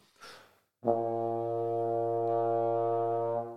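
A trombone holds one low, steady note for nearly three seconds, full and buzzy with rich overtones, starting abruptly after a short breathy puff of air and stopping cleanly; the low note is made by blowing slow air, using only the lips and air without moving the slide.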